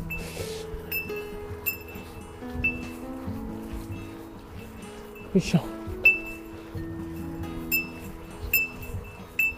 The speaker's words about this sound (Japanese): まあね、鈴の音も情景だと思って聞いてください。